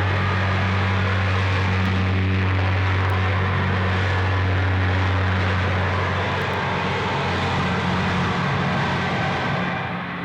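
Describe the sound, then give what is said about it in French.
A loud, steady roar of airplane engines at an airport, with a deep droning hum underneath, continuing without a break and with no voices. “il pensa avec un peu de vertige que l'enfant qu'il avait été devait se trouver là aussi à regarder les avions”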